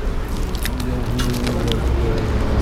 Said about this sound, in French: Et on enchaîne, donc on va rester dans la thématique euh, pause déjeuner avec euh, l'équipe technique du coup, enfin une partie hein, de l'équipe technique du festival. Donc on écoute la mastication.